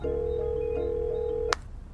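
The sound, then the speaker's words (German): A steady electronic phone tone hums for about a second and a half, then cuts off with a sharp click as a mobile phone call to a grandfather connects, made from an old childhood bedroom. Only faint background noise remains, and no one speaks. “Ich schnapp mir mein Handy, gehe in mein altes Kinderzimmer, setze mich auf mein Bett, in dem ich 18 Jahre geschlafen habe und rufe meinen Opa an.”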